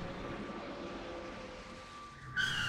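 A speeding car coming the wrong way down the road roars steadily, then its tires suddenly break into a loud, high-pitched skidding squeal near the end, intense, with no one speaking.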